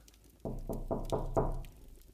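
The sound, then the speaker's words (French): Five firm knocks on a door in a steady, even rhythm, moderately loud, with no voices in between. “Ah, ça cogne à la porte.”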